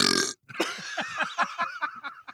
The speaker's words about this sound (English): That's a cartoon burp. the best part about that burp was not the burp, but the look, like the look on his face. It was like, oh shit, I have to burp.